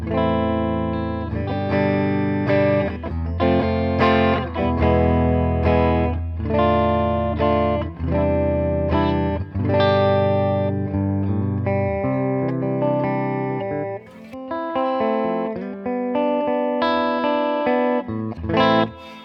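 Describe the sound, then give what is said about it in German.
A clean electric guitar plays through an effects pedal, ringing chords and melodic notes at a steady, fairly loud level, with one brief dip before the playing resumes. No one speaks. “Ja, spiel doch mal clean einfach.”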